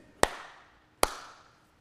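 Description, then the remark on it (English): Two sharp, loud gunshot cracks about a second apart, each followed by a short ringing echo that fades away. A starting pistol at a regional sprint race fires twice to signal that somebody false started, with no voices. “that means somebody false started.”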